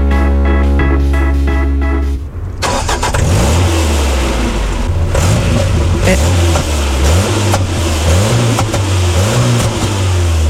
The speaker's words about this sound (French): Ouais, je comprends pas, ça démarre, mais quand j'appuie sur l'accélérateur, ça avance pas.